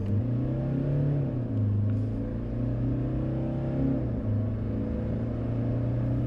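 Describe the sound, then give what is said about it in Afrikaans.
The 2.8 turbo diesel engine of a Hilux, rated at 150 kW and 500 Nm, accelerates with a deep, steady drone that climbs in pitch. It briefly drops twice as the 6-speed automatic gearbox shifts up, then climbs again. No one speaks. “Die 2.8 turbo diesel stoot 150 kW en 500 Nm vanaf net 1600 toere uit, gekoppel aan 'n 6-spoed outomaties.”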